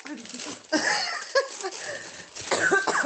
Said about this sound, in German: Warte, Anne, ich hab Husten.